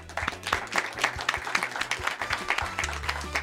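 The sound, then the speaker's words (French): A crowd claps steadily in sustained applause, dense overlapping hand claps at a moderate, even level from start to finish with no talking. The applause is a tribute to the late French actor Gaspard Huliel. “Applaudissez”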